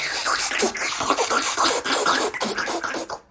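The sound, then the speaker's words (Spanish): Someone imitates slurping Japanese noodle soup with the mouth: a continuous wet sucking hiss lasting a few seconds, pulsing slightly in loudness, with no words spoken. “que es algo que parece ser que está bien visto en Japón, comerte los fideos haciendo, sorbiendo y haciendo ruidos de, de, absorción y cosas de esas.”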